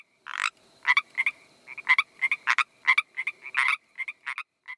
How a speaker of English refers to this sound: After a bit more Googling, I decided it must be the Pacific tree frog.